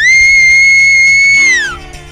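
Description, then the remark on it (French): A shepherd's loud, piercing whistle command to a sheepdog working sheep, telling it to go left: one sustained steady note held for over a second, then sliding downward in pitch and fading, with no voices. “Il siffle. T'as vu comme il siffle bien”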